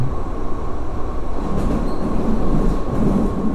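A Berlin U-Bahn subway train at Klosterstraße station rumbles steadily and loudly, a dense low roar with a faint high whine running through it. Nobody speaks.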